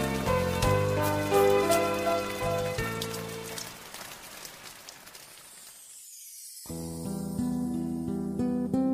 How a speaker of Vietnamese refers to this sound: sài gòn vẫn tiếp tục mưa và thậm chí mưa kéo dài từ giờ này sang giờ khác giống như huế những ngày xưa nhất là mưa đêm